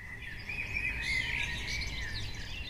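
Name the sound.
bird singing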